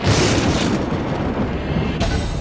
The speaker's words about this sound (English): The men looked up at the sky, and there was a deafening crack of thunder.